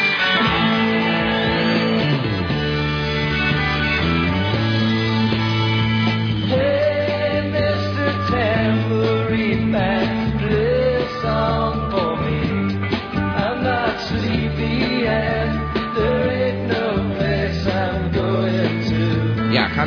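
A folk-rock song plays steadily and loudly from start to finish on the T-show of Radio Gamba, with ringing layered guitars and sung vocals over a steady beat, sounding slightly muffled like a radio broadcast.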